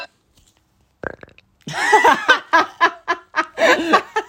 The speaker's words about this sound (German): Und sie hat einfach nur so gefurzt.